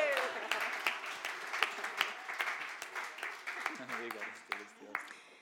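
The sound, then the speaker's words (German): A crowd applauds steadily for several seconds in thanks to a large group of people, dense overlapping claps with a few sharper individual hits, while voices murmur and call out underneath. “Lass uns bitte einen Applaus an diese Leute geben, ja.”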